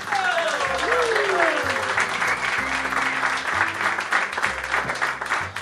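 Sustained applause from an audience welcoming guests, dense steady clapping mixed with music carrying descending and held tones underneath, loud throughout the few seconds.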